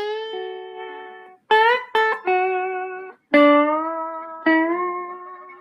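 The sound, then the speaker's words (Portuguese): Clean electric guitar played with a slide, sustained notes gliding smoothly between pitches in a short melodic phrase, with a few sharp re-attacks and bright ringing tone, no voices. “Bom, deixa eu mostrar para vocês o som do slide aqui ao vivo. Eu vou tirar um sonzinho aqui para vocês, com a guitarra limpa para vocês verem.”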